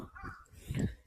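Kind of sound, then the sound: bird, crow cawing outside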